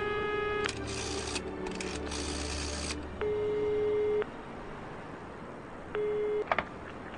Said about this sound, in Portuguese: Alguns goles, olhou para o telefone. Não se conteve, discou.